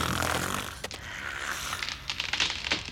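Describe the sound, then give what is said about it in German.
Steady, rasping snoring fills the moment, fairly loud, with a few crackly, snorting bursts breaking through the drawn-out breaths; no one speaks. “Oh, der schnarcht.”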